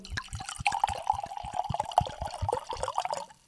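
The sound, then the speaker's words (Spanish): Wine glugs steadily into a glass for a few seconds, a rapid string of gurgling bubbles over a sustained mid-pitched ringing tone, fairly loud and continuous, with no voices. “¡Oh, qué hermosura! Eso sonido real, ¿ah? Atención, porque... Bueno, brindo por ustedes.”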